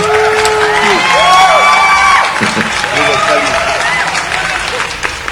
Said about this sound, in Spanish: un aplauso.